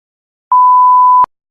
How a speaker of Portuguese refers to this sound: Coloca o bip aqui, tá?